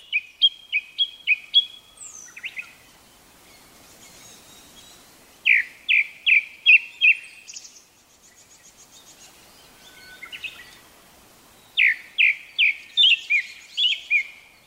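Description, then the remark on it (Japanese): A Japanese thrush sings clear, ringing phrases in three bursts, each a quick run of repeated bright notes in a mid-high register, separated by short pauses with faint softer calls between. No talking. It is singing in the morning in a quiet holiday villa area. “今はまだ静かな朝の別荘地に黒つぐみの朗々たる歌声が響いています”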